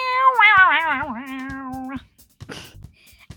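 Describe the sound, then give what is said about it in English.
A voice imitates an electric guitar with a sustained, wavering, whiny tone that bends in pitch for about two seconds, followed by a few soft clicks and rustles. “What is the name of this instrument? An electric guitar.”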